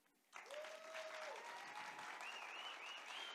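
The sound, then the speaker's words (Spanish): A sudden burst of dense, roaring applause from a large crowd that holds steady to the end, with shrill whistles rising over the clapping, as an audience cheers dogs that have danced to mazurka and foxtrot rhythms. “Y sonó un estruendoso aplauso así.”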